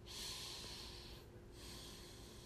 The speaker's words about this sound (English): it's just the breath. It's just about the breath. And then you're not even thinking about the breath.